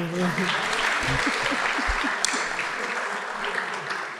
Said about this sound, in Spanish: Ah, si sea un aplauso, aplauden todos.